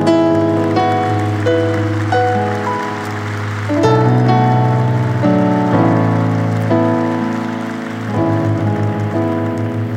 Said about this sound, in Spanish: fuerte aplauso al Rey.